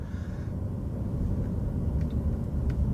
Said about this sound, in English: There are a lot of loud cars on the road today. Just a lot of loud cars on the road today.